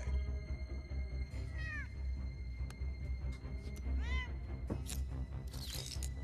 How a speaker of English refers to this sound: It's a cat, not Hannibal Lecter.